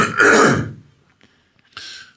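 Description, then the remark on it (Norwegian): A loud throat clearing, a harsh rasping burst, followed after a short pause by a second, softer clearing of the throat. No talking. “Nå må jeg bare ta et skikkelig kremt her.”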